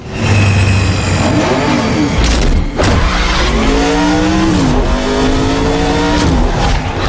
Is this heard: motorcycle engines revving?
yes